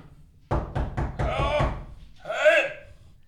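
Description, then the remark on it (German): A quick series of four or five loud knocks on a door, followed by a brief voiced exclamation. “Vielleicht sollten wir die Tür öffnen und gucken, wer dort ist.”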